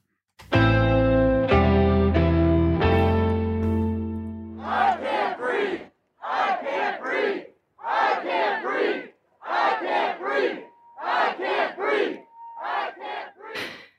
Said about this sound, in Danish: Vi starter altså foran øh, det hvide hus i USA, hvor demonstranter de igen var mødt frem mandag, og blandt andet råbte de ord, som øh, den sorte mand George Floyd han sagde igen og igen, inden han døde